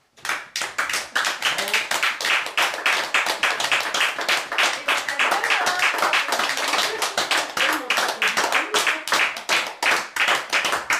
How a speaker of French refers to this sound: On vous remercie beaucoup de vos applaudissements et on remercie beaucoup de personnes qui ont commencé l'impro-théâtre il y a seulement deux mois